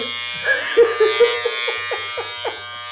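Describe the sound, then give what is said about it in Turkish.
An electric shaver buzzes steadily as someone shaves, its whirring drone wavering slightly as it runs without pause for a few seconds, with no voices. “Ee, Can Yılmaz'ın programımıza Abi e, elektrikli tıraş makinesi ha, sponsorlarına gel gel yapmak için abi, e, uydurmuş olduğu bu, bu basit ne, animasyon bu ne, için.”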